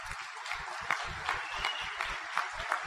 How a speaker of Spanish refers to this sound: Les voy a pedir, por favor, un fuerte, fuerte aplauso.